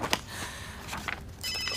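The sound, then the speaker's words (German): A telephone rings with a high, shrill electronic trill, broken into short bursts and ending in a sustained warbling tone. No one speaks over it. “Oh, das meinte ich natürlich nicht mit klingeln.”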